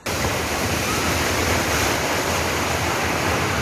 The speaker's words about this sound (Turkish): Bu görüntüler Seferihisar Sığacık'ta kaydedildi. İzmirlilerin depremi hissedip koşmasıyla sular da yükselmeye başladı. Karayla deniz birleşti, tekneler sürüklendi, içinde mahsur kalanlar oldu.